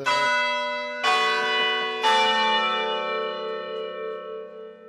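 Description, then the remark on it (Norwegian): The large bell in the city hall tower (Rådhustårnet) strikes three times, about a second apart, each loud, resonant peal overlapping the last and fading into a long, humming decay. No voices. “Der tok eh, klokken i Rådhustårnet over for eh, Stian Berger Østland, som ble intervjuet av Bjørn Myklebust.”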